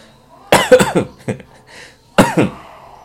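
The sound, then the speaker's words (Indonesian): A loud burst of harsh coughing: a quick cluster of hacking coughs, a short single cough, then after a pause another double cough, with no talking. “itu agak-agak batuk”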